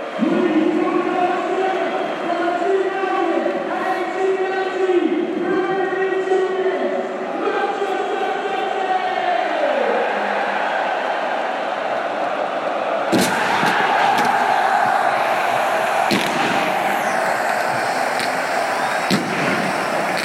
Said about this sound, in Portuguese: Título muito próximo do City. Torcida do City agora faz muito mais barulho que a torcida do Brighton.